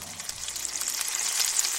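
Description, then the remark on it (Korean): Korean pancakes (jeon) sizzle steadily in a hot pan, a continuous crackling hiss with tiny popping bursts, heard on its own with no voices. “기분까지 행복해지느니 지글지글 소리. 꼭 오늘 내리는 빗소리 같지 않나요?”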